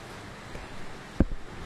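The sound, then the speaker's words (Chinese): Rain falling as a steady, even hiss across the whole clip, broken once near the end by a single dull, low thump. No one speaks. “好，接下来的话，让大家再好好的聆听一下啊雨声。”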